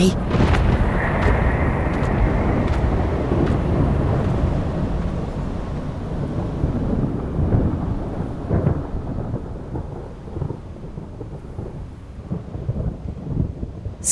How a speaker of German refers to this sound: Gewitter hört zum Glück bald auf.